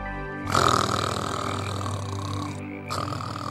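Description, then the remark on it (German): Sid snores while being carried away by a horde of mini sloths: one long, loud, raspy guttural rumble that starts abruptly and drags on for about three seconds, with a brief dip before it swells again near the end. No one speaks. “Der schnarchende Sid wird hier soeben von einer Horde Mini-Faultiere weggetragen.”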